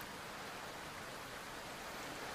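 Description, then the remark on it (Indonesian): Steady, even hiss of rain falling outside, a soft continuous wash with no distinct drops standing out. It stays constant and fairly quiet throughout, with no voices. “Hujan di luar ngebuat ruangan ini jadi agak lebih gelap”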